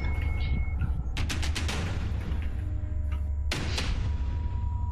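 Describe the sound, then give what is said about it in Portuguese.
A rapid burst of five or six sharp gunshots, followed after a pause by a single louder, echoing shot, all over a constant low rumble of background noise. “Não tá rindo, tiro.”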